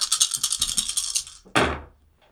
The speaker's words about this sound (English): One, two, two successes. He rolled five successes on five dice.